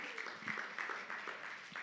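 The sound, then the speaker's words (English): Brief, fairly quiet audience applause: a dense, steady patter of clapping with a few slightly louder surges, mixed with indistinct voices from the crowd. “And you guys need to give yourself an applause because you guys are unique.”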